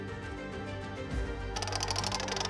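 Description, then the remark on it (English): A prize wheel, set spinning with the click of a button to pick a winner, ticks steadily as it spins, a run of quick mechanical clicks with no voices, the ticking growing brighter and busier toward the end. “It's slowing. It's slowing. Gosh, this wheel's taking a while.”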